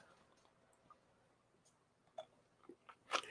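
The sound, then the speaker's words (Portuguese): Someone takes a sip of water: a few soft, wet mouth clicks and a small gulp toward the end, otherwise quiet with no talking. “vou até tomar um gole d'água aqui para falar essa parte.”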